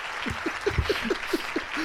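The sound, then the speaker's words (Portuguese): A short burst of canned applause played from a soundboard, a steady crackle of many hands clapping at moderate volume for about two seconds, with faint rhythmic vocal-like pulses underneath. “Ai, era palmas!”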